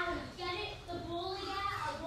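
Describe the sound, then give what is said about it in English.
Children's voices, a seven-year-old's among them, chatter indistinctly in the background at home during home schooling, a steady murmur of young, high-pitched talk with no clear words. “You might hear them in the background here.”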